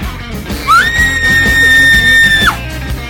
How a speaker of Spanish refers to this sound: Échate un gritito. es que gritas bien bonito, dice.